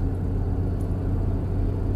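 A snowmobile engine runs steadily, a low, constant rumbling drone with no speech over it.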